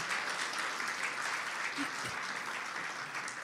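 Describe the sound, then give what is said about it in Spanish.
Steady applause from a church audience applauding the Lord, a dense wash of many hands clapping at an even loudness throughout, with a faint voice briefly audible beneath it. “Démosle un aplauso fuerte al Señor, hermanos.”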